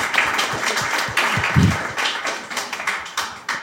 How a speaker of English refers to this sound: Thank you for doing it, Matt. Applause.